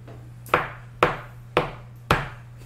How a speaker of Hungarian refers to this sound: Nem hallja egyáltalán kopogtat. Hát hallom csak.